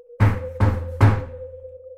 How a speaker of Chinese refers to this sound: 敲门声响了起来。